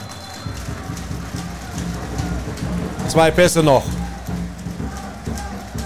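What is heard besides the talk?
rain falling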